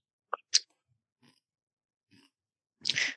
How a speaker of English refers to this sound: If you can hear me crunching chips, let me know. Yes. Nope, you're good. I can hear you crunching chips. You're fine.